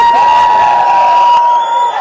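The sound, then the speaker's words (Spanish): A loud, dense burst of cheering and clapping from staff in a White House office, with a steady high ringing tone riding over it; the crowd noise cuts off sharply partway through. “Sí, obviamente, todos en la Casa Blanca, toda su oficina, oficina aplaudiendo.”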